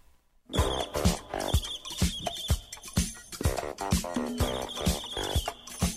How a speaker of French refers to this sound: J'adore les flatulences de trombone.